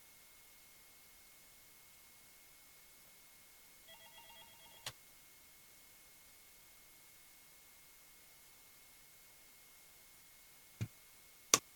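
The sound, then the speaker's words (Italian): A faint, short burst of electronic telephone ringing as a caller phones in, about a second long, then a few sharp clicks like a line being picked up, over quiet background hiss with no talking. “non mi sembra di sentire nessuno che eh, telefona, invece mi sbaglio perché adesso qualcuno c'è.”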